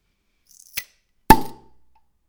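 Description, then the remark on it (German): A small 0.33-litre bottle of Flensburger Pilsner beer being opened: a few faint clicks and a short snap, then one loud, sharp pop that rings briefly before fading. No one speaks. “Und du kannst jetzt an der, also, ne, mit dem Tipp 0,33er Flasche und am Öffnen versuchen zu erraten, was sein könnte.”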